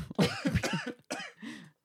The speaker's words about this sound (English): Sorry, everybody, I took a hit and I'm coughing. Choking.